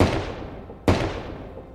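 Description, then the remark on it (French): Two sharp gunshots, a little under a second apart, each cracking loudly and then fading into a long reverberant tail, depicting the poet Paul Verlaine firing a 7 mm gun at Arthur Rimbaud in a hotel room in Brussels on 18 July 1873. No voices are heard. “Deux coups de feu.”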